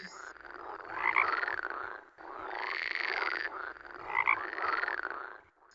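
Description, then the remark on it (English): Frogs croak loudly and continuously outside, in Florida, their dense trilling chorus rising and falling in two long waves, with no voices present. “What's that croaking outside?”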